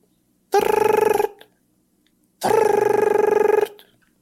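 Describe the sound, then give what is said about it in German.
A voice imitates an ultra old-fashioned desk telephone with a small horn to speak into ringing: two loud, buzzy trilled bursts of about a second each, separated by a short pause, with no other talk. “Ähm, der klingelt jetzt.”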